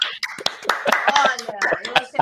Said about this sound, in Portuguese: Agora uma salva de palmas aí pela minha pesquisa, porque eu mereço.